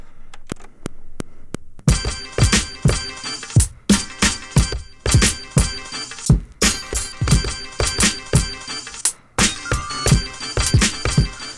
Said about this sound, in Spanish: es otro corte que le hizo el doc diferente al que tenía con el beat que ya tenía hecho